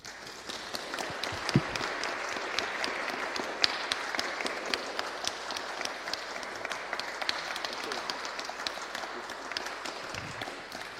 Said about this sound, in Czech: tak jsem moc rád, že právě on jako odborník na salesiánskou historii přijel, tak mu teď hezky zatleskáme.